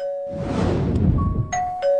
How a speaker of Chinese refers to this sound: 叮咚一声，外卖准时送达。